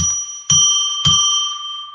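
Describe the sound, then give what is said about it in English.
A bell is struck three times in quick succession, about half a second apart, each clear metallic ring overlapping the last and fading into a long shimmering decay. No one speaks. “I'll ring a bell three times to declare that we are entering sacred space.”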